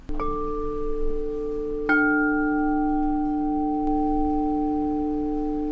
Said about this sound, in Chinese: 我们可以听听看水晶钵的声音吗？ 嗯，可以。